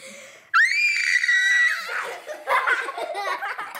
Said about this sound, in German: Ich halte ein Glas und schreie so laut wie ich kann rein.